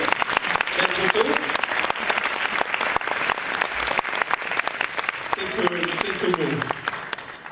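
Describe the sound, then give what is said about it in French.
An audience at a French award ceremony bursts into sustained applause for two prize winners from a TV series. Dense crackling claps fill the whole clip at a steady loud level, with a few voices speaking briefly underneath the clapping. “Alors, entre vous deux, alors comme d'habitude, si vous applaudissez là, ils en sourire, regardez, faites-le.”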